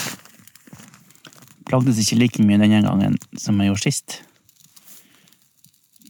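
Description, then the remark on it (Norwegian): A campfire built against a stone from kindling wood and bark, lit with a match during an ice-fishing outing, crackles with scattered pops and snaps in the background, steady, while a man speaks over it for a couple of seconds in the middle. “Hvis dere hører det nå i bakgrunnen, så fikk jeg faktisk bål.”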